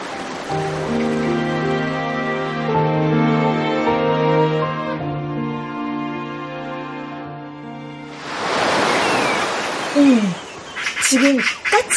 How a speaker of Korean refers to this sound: 까치 한 마리가 갈매기를 쫓아내는 거지. 소금 냄새를 쫓아 상류까지 올라온 갈매기들이 그 옆으로 다가가자 한 마리의 까치가 길을 쓰며 갈매기를 쫓아내었다.